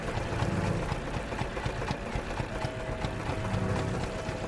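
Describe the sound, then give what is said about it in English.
A boat engine idles with a continuous low rumble and faint rhythmic knocking, holding an even level throughout with no talking; on the Yangon River, the engine supplies air to the mask of a diver working below the surface. “It's really nerve wracking because there's really not that much air coming into the mask, and it's not very clean air. It's all coming out from the engine.”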